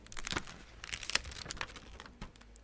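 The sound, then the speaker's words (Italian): Paper rustling and crinkling as a book page, pages 11 and 12, is handled, a run of soft crackles and brushes lasting a couple of seconds, with no voices. “La pagina del libro, qua c'è la pagina 11 e 12. Cos'è questo foglio?”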